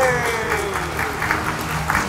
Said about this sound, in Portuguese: Uma salva de palmas para você!